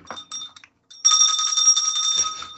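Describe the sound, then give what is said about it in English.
A couple of quick bell dings, a brief pause, then a loud, sustained trilling bell ring that carries on for over a second with no voices present. “You, you, sure yeah you can you can ring the subjectivity bell all you like matter of fact”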